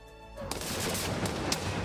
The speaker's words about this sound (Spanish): Sí, a esa hora, a las 4 de la tarde, se lanzarán cañonazos desde el Cursal.